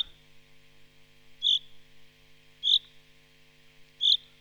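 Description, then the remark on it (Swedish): Three short, bright chaffinch contact calls ring out at steady intervals of just over a second, each a sharp single chirp standing clearly above a low, constant background hum. “Jag hör lite olika småläten, lockläten och kontaktläten. Det här är det vanliga kontaktlätet.”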